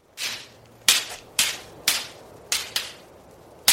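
A series of about seven sharp, heavy blows land one after another at a steady, slightly uneven pace, loud like someone being struck repeatedly, coming from an old small furnace outside a community hall, with no voices.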